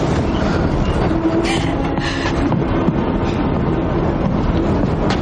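A train bound for Auschwitz in World War II, in the 2006 drama El Ultimo Tren a Auschwitz, rolls along the rails in a steady, loud, continuous rumble and rattle, with a faint metallic whine running through the noise and no break for the whole stretch.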